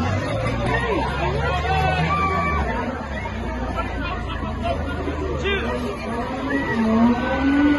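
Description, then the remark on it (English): Car engines rev with deep, rising growls over a continuous hubbub of crowd chatter at a gas station mini mart, the revving swelling louder toward the end amid the busy outdoor noise. “Cars revving.”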